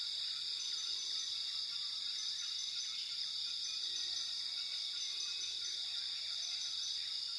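A steady rainforest ambience dominated by a dense, continuous high-pitched drone of insects chirping, with faint scattered bird calls in the background and no one speaking.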